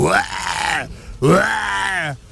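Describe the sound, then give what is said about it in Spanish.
A person growls like a tiger, two drawn-out, rough vocal snarls back to back with a brief pause between, loud with no other sounds. “Y el tigre, pues, pues se miró al elefante y le gruñó también.”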